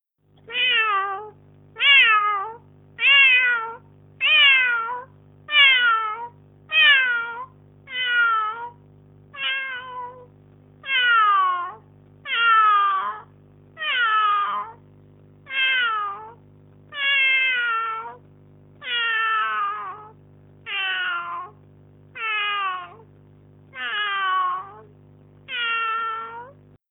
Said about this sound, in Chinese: 听，这一只小猫在喵喵叫。